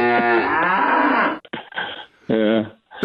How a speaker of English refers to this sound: I was I was hoping to hear the uh, the cow or the uh, oh okay explosion. you I want really the cow? All right, here's here you go.